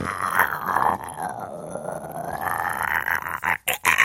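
stomach growling

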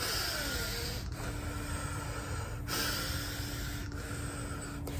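slow deep breathing demonstration

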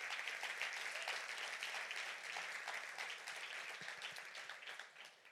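audience applauding

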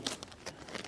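gift wrapping paper crinkling

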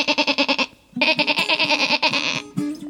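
sheep bleating

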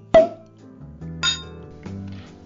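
wine glasses clinking

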